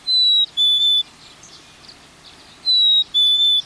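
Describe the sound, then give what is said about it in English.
A black-capped chickadee sings its clear, high two-note whistle twice, each pair a slightly falling 'fee-bee', with a short pause between. Loud, with faint background hiss. “We're hearing a house wren, a black capped chickadee”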